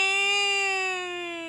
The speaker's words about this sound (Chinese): 可怜的小家伙一时没反应过来，他也不知道怎么会到木桩里，找不到爸妈的小野牛哭了起来。